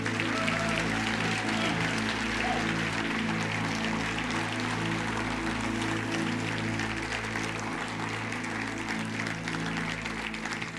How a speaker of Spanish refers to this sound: Un aplauso.